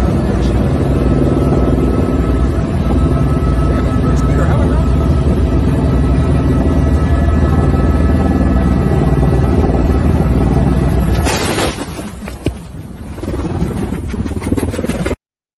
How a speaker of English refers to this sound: Was that your homeboy driving? They collided with another helicopter.